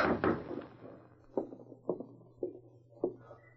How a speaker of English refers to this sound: She stopped suddenly as she heard a light tap on the door.